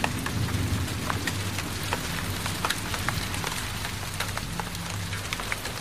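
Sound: rain with distant thunder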